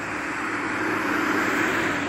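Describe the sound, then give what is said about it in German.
A car passing on a country road, a steady, loud rushing roar of engine and tyre noise that holds for about two seconds with no voices. “Ach verdammt, wie viele Autos kommt denn hier noch vorbei?”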